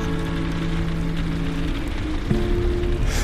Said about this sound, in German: Das Wetter ist ganz sicher stürmisch. Der Regen prasselt gegen die Fensterscheiben.